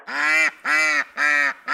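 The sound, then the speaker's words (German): A duck quacks four times in a steady, evenly spaced rhythm, each quack loud and nasal, with short gaps of silence between them. “Das zarte Geschnattere einer Ente.”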